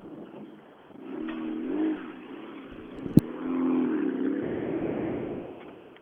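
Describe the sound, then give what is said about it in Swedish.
Rally car number nine revs and pulls away at the end of a special stage, its harmonic engine drone rising and falling through gear changes, with a sharp click midway and the motor fading slightly as it departs. “De åker vidare och vi väntar på nästkommande bil här i slutet av sträckan.”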